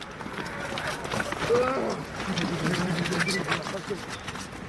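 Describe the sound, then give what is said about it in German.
An injured person groans in pain, low strained moans rising and falling, while being carried on a stretcher to an ambulance during firefighters' rescue work at night in Kharkiv, eastern Ukraine, amid a busy, noisy scene of hurried footsteps and shuffling movement. “Das ist das Stöhnen eines Verletzten, der auf einer Trage zu einem Krankenwagen gebracht wird.”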